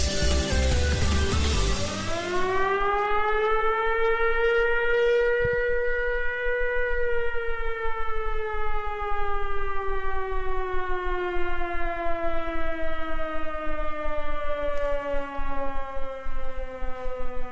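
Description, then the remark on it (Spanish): A loud siren wails continuously, its pitch rising sharply at the start and then slowly sliding downward over many seconds with strong harmonic overtones, heard alone without any talking, played on a radio broadcast in Bogotá as a reminder to wash hands. “Con esa sirena sabemos que nos tenemos que lavar las manitos, las uñitas, el pelito, todo el rabito, todo, todo, todo.”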